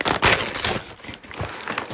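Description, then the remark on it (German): Packing paper laid as a cover inside an opened package crinkles and rustles in irregular bursts as it is pulled and crumpled while unwrapping an Apple computer mouse, a steady crackly texture with no one talking. “Okay, erstmal so ein bisschen Papier drin. Als Abdeckung oder so. Keine Ahnung, ob das Soundcracks gibt.”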